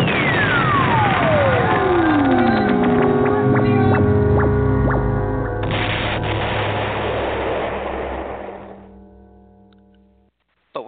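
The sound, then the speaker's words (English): A loud rocket-launch sound effect: a long whistling tone sweeps steeply downward, then a dense, roaring rumble with siren-like tones takes over and fades away after about ten seconds. “this is the first time we're going to fire a a two different rant rockets. So I'm going to start with the supernova rant rocket first.”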